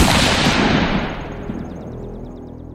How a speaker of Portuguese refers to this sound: João é interrompido por um som que parece um tiro.